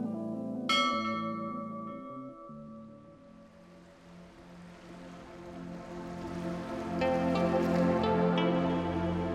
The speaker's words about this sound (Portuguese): tocou o sininho do inquietude, já sabe. É o nosso minutinho para dar aquela relaxada. Tá na hora de fazer a nossa pausa, né?